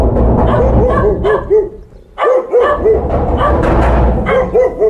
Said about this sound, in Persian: صدای چند سگ با هم با صدای در زدن بلند می شود